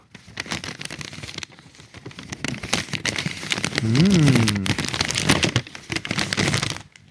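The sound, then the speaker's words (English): Paper being crinkled, a dense, continuous run of crisp crackles and rustles for several seconds, with a brief low hum from a voice partway through. “So this is the sound of paper crinkling.”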